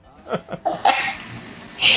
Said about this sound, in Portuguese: Tinha um amigo que sempre falava quando alguém espirrava assim, ele mandava. Espirra mais alto pra chamar mais atenção.